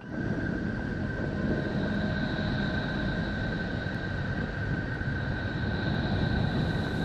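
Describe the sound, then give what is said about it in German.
A sonification of the planet Neptune, the blue outermost planet, about 50,000 kilometres across and discovered in 1846: a steady, dense rumbling drone with two sustained whistling tones above it, holding an even loudness throughout without pauses or voices. “So klingt das, was heute vor 175 Jahren entdeckt wurde.”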